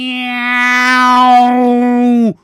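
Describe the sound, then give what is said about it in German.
A person voices one long, drawn-out meow, holding a steady, clear tone for over two seconds before it cuts off with a slight downward dip, loud. “Wir spielen Katze in der Nacht mit Stäbchenaugen und so stollen, tollen Schnurrbarthaaren. Los jetzt, miauen!”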